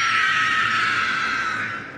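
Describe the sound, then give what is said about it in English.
A loud, piercing screech holds steady for about two seconds, close and unbroken, with no voices around it, then tapers off slightly at the very end. “I wish that I didn't because I heard the most bone chilling screech ever coming from right next to me.”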